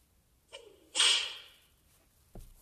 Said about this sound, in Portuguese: Isso é barulho do quê? Chicote. Chicote. Um chicote.